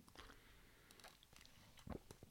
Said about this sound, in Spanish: No sin antes darle un traguito aquí a mi café. Mm.